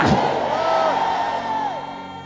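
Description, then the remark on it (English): A large crowd shouts and cheers loudly all at once in response to a call to shout louder, a dense sustained roar of many voices with rising whoops, filling the space for a couple of seconds before tapering slightly. “Can I hear you hollering louder? Say, It is time.”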